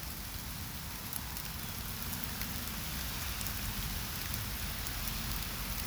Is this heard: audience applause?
no